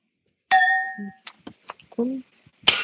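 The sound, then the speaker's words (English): Wine glasses clink together in a toast, a bright ringing tone that hangs for about half a second, followed by brief murmured voices and another sharp knock near the end. “But yes, no cheers. Cheers, Desjolais. Cheers to the Wade Union clan.”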